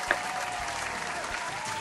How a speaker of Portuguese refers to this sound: Aí, palmas, palmas.